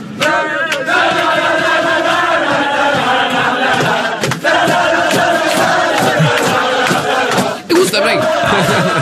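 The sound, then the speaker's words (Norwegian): A group of football fans chants loudly together on a bus on the way to the Poland vs Northern Ireland match, voices blending into a steady, rowdy sing-along that carries on without pause, with a few sharp shouts and bangs standing out. “Og vi har hørt et lite klipp fra bussen når de var på vei til å se Polen-Nord-Irland.”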